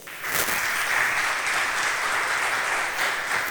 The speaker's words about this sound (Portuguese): Eu quero aplausos para o Senhor.